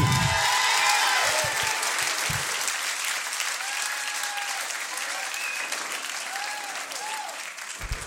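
An audience in Rouen applauds a performer at Active One's 10th-anniversary show, a dense wash of clapping for several seconds with scattered whoops and cheers rising above it, holding fairly even before easing slightly at the end.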